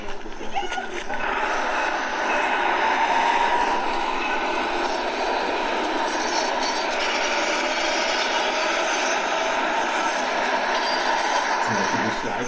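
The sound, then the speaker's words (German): A tram rolls steadily past on a busy street, a continuous loud rush of wheel-on-rail noise and hiss that holds nearly constant from start to finish, with city bustle around it. “Geräusche der Straßenbahn sind einfach super interessant.”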